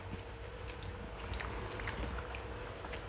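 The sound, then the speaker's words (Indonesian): Soft chewing of a mouthful of rice, chewing as many times as possible, with moist squishy mouth sounds repeating steadily over a low background hum, no talking. “Gue tujuan gue bikin gini juga sih pengen ya pengen tau lah katanya makan gue kecepatan jadi gue pengen sambil ngomong mengunyah sebanyak mungkin mengunyah hmm, berapa kali itu 33 kali”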